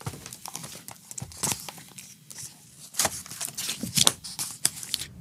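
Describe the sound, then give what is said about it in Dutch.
Pages of historian Dr. Luc Brans's printed thesis are riffled and turned in quick succession to find page 167, a crisp rustling with sharp flicks and soft slaps that quickens toward the end. No one speaks. “Ik heb hier zijn proefschrift voor me liggen. En op bladzijde 167, dat zoek ik even op.”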